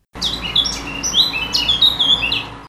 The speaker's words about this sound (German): Jetzt schimpfte die Amsel und gleich sang sie das Liedchen noch einmal und noch lauter.